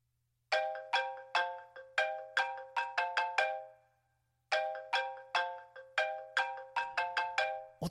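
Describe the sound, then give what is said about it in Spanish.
A telephone rings with a bright, repeating melodic tone in two bursts separated by a short pause, loud, with no voices. “Mira, ahora lo voy a coger y le voy a cantar las 40.”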